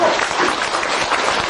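An audience claps steadily to encourage a business owner, a dense, continuous wash of applause, many hands overlapping at an even loudness with no break and no voices on top.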